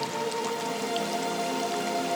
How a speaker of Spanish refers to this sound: escuchando el agua, imaginando que estás cerca de un río, de esa cascada, en ese lugar ideal.